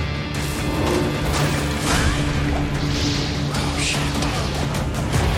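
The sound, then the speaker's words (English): A video game potion sound effect rings out amid dense, continuous game audio, with a steady low hum underneath and brief bright, crashing flourishes rising above it. No one speaks. “I like that potion sound.”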